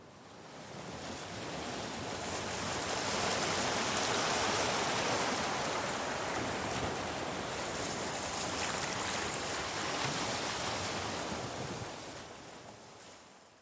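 Ocean surf washes steadily onto a beach, a broad continuous roar that swells up over the first few seconds, holds, then fades away near the end, with no voices.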